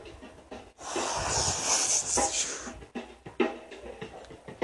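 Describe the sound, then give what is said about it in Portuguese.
A voice imitates wind blowing: a long, breathy whooshing hiss that swells and wavers for about two seconds, followed by a few shorter puffs of breath. “E o vento bateu.”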